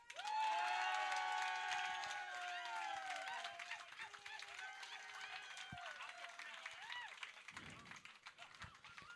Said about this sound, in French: Une grosse main d'applaudissements.